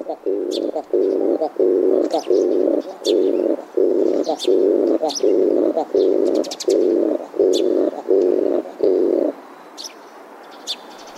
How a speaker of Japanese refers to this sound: ででポポと鳴く鳥といえばそうですキジバトです実は冒頭の鳴き方もキジバトのオスがメスの横で歌う繁殖期限定の求愛ソングなのです